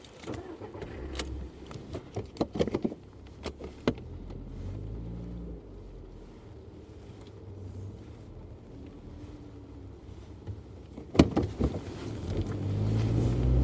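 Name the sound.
car driving off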